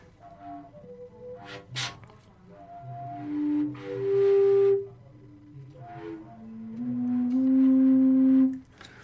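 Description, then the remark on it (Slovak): A fujara shepherd's flute plays a short phrase of low, breathy sustained notes with airy overblown bursts between them, ending on a long, loud held tone. No voices. “No, nie je to ešte úplne scelená fujarka, takže No dobre.”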